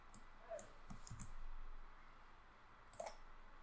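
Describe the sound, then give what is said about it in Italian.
A few sharp computer mouse and keyboard clicks, fairly quiet, spaced irregularly with a short pause before a final pair of clicks near the end, as someone copies and pastes a website address. No one speaks. “Aspetta perché posso fare copia e incolla.”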